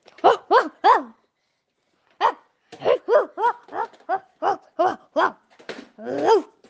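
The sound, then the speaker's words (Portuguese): A child's voice imitates a dog barking, his favorite animal, for a school activity: three quick yaps, a short pause, then a longer run of about ten bouncy barks, fairly loud. “Como é que é o nome desse bicho? Cachorro.”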